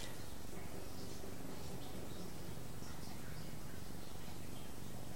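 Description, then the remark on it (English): A steady, low-level wash of splashing water from a fountain runs throughout, in spring in the northern hemisphere, with a few faint high bird chirps scattered over the constant hiss. “There's a fountain, I can hear that.”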